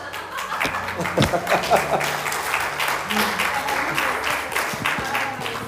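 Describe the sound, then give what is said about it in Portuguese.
An audience claps steadily for several seconds, a dense, continuous patter of many hands, with a few voices and faint chuckles mixed in underneath. “A palmas aplauda.”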